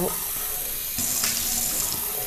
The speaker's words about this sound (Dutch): Oh, ik doe nog een beker water.